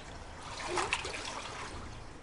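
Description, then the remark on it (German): A soft splash as a man on a motorboat, out fishing, throws something into the water, a brief burst near the middle over a steady watery background hiss; fairly quiet, with no voices. “plötzlich sieht der Kwiatkowski, dass der Nikos etwas ins Wasser wirft”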